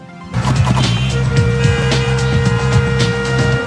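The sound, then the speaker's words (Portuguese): Busy road traffic fills the scene: a loud, continuous wash of engine rumble and passing vehicles with brief sharp bursts, layered over steady humming tones, no talking. “Trânsito. Trânsito.”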